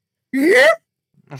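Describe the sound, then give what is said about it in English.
A person's voice imitates a Bigfoot call with a single loud, rising whoop that sweeps upward in pitch for about half a second, followed by silence and the start of more talk. “to this day do not know how those people on the TV shows on like Discovery and shit keep a straight face when they're like, "I think Bigfoot sounds like this."”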